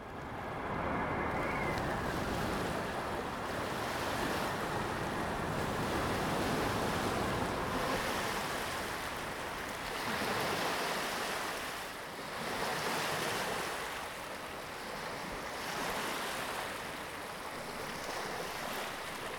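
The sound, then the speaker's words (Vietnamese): Steady ocean surf washes and breaks against the shore in rolling surges before dawn, with gusty wind off the sea buffeting the microphone throughout; no voices are heard. “đạo diễn đi ra biển.”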